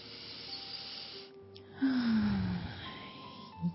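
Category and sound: human body sound, deep inhalation breath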